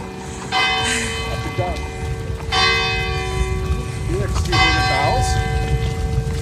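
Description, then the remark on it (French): Church bells toll loudly, with three resonant strikes about two seconds apart whose long ringing hum carries between them, while voices murmur faintly underneath. “did you hear the bells ring?”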